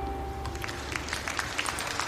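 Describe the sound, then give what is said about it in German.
A short burst of applause for a corny joke: many hands clapping in a dense, irregular patter that holds steady at a moderate level for about two seconds, with no voices. “Da hast du deinen Applaus für deinen wunderbaren, flachen Flachwitz.”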